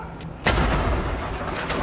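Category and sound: impact, ceremonial cannon salute fire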